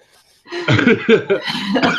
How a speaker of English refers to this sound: Cough.